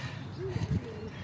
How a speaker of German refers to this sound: Ein paar Tauben sind heute auch noch dabei. Die zählen mit.